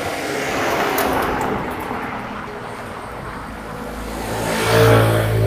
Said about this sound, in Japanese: ちょっと大きめの音の車が来そうです。